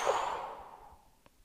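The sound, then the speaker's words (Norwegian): A single slow, breathy exhale during a guided breathing exercise, starting fairly strong and gradually fading away over about a second, with no voices present. “Og pust ut.”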